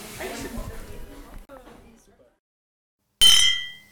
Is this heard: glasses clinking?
yes